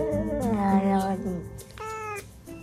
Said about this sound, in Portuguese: O vídeo Aqui há gato. Dois gatos miam e vai aparecendo o diálogo.